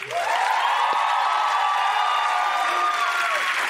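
An audience cheers and applauds a comedian from Solânia, Paraíba, loudly and steadily for several seconds, a dense wash of clapping topped by sustained high-pitched shouts and screams, with no clear speech.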